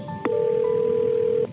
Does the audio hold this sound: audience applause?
no